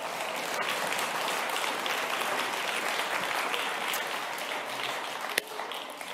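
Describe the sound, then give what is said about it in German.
An audience claps steadily for about six seconds for a Spider-Man character called onto the stage, a dense, even patter of many hands with no voices rising above it, holding at a fairly constant level throughout. “Diesmal gibt es keinen Applaus für dich, glaube ich.”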